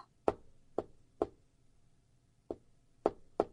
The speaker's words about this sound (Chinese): 两个人正说着话，忽然传来了一阵阴阴的敲门声。